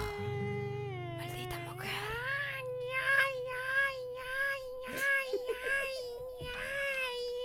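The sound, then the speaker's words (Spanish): A young child screams and wails, a continuous high-pitched cry rising into repeated strained bursts, with a low droning hum underneath for the first few seconds. “Es el sonido del niño que está gritando, claro.”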